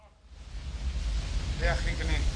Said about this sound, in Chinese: 好，我们来听一下，在瀑布后面啊，声音有点大，我慢慢的。给大家拉一下。